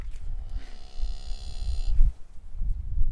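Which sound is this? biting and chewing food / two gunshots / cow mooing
cow mooing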